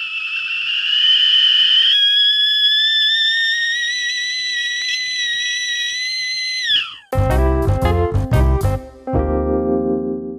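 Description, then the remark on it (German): A stovetop kettle coming to a boil whistles shrilly and steadily, loud, its pitch creeping upward for several seconds before dying away into a few loud, choppy clattering bursts. “Der Kessel, kurz bevor er kocht oder wenn er kocht, klingt so.”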